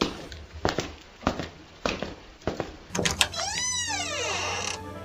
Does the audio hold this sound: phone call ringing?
no